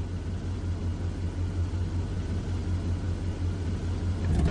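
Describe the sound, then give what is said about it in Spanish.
A dark grey car rolls slowly up the road leading to a house, its engine a steady low rumble that grows slightly louder toward the end. No one speaks. “Un for gris oscuro se acerca por el camino que lleva a la casa.”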